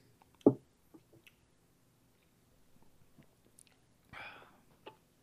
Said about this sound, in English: Right, Time for everyone to take a sip. Yeah. Hey, cheers, guys! Cheers.